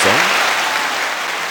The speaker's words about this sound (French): Ou ben non, j'ai aussi des enregistreurs, des applaudissements qui viennent avec ça.